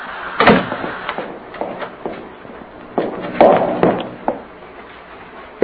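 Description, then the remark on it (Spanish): A bathroom door is shut with a heavy thud, followed by a series of sharp mechanical clicks and clunks as the key left in the lock is turned, spread over several seconds with no voices. “Entonces abandonó el cuarto cerrando la puerta con llave que encontró puesta por dentro de la cerradura.”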